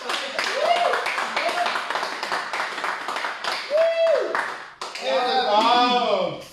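An audience claps steadily as a show's host is introduced, with sharp whistles rising and falling over the applause. Toward the end, louder cheering and whoops join in, dense and sustained.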